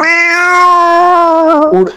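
A single long, drawn-out cat meow, loud, holding a steady whining pitch for nearly two seconds before dipping and breaking off at the end.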